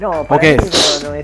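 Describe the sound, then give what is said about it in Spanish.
A single sharp sneeze bursts out in the middle of people talking, its hissy breathy tail lingering briefly before the voices carry on. “Salud. Salud.”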